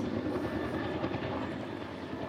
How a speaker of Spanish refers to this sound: Es un helicóptero de la policía, blanco y verde.